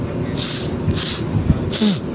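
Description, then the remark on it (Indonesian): Three short, hissy bursts of sneezing in a row on a bus, caused by sinus trouble, each a sharp breathy blast with a faint low rumble beneath, spaced about half a second apart with no talking. “ah gue bersin bersin nurse di bis gila biasalah sinus”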